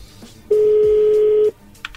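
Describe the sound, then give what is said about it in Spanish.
A telephone number being quickly redialed after a call was hung up: a single loud, steady mid-pitched phone tone holds for about a second, then cuts off, with only faint background noise around it and no talking. “Colgó, a ver, márcale de nuevo, rápido.”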